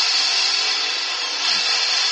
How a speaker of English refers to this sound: That's the drill.